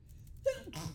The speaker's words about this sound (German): Gesundheit.